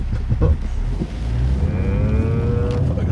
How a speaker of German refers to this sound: Boah, die Bremse. Ey. Die Bremse schnarcht auch schon vor sich hin. Aber das ist normal.